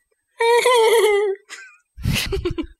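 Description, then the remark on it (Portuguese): A person imitates a horse whinny: a loud, wavering, pitched cry lasting about a second, followed by a short yelp and then a breathy, sputtering snort-like burst. “Isso é uma imitação é, fracassada do barulho de um cavalo.”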